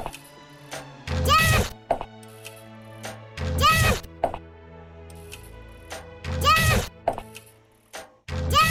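Video game arrows thud into a wall, three loud thwacking impacts landing a few seconds apart, with smaller clicks in between over a steady electronic background hum.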